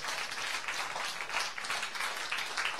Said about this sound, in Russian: Дай Господу аплодисменты. Он достоин.